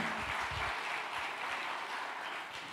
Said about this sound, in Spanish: Vamos a darle un aplauso fuerte.